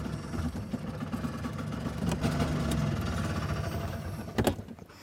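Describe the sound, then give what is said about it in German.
A small car engine idles steadily in a courtyard, a low, even rumble with a faint mechanical rattle and a brief clunk near the end. No one speaks. “Jetzt läuft er im Leerlauf.”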